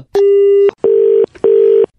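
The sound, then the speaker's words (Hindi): Three loud, steady electronic beeps from a phone line, each about half a second long with short gaps between them, the call-disconnected tone after the other party hung up. No one speaks. “hello शायद network में कोई प्रॉब्लम अरे यार चलो नेटवर्क नहीं यार फोन काटा है”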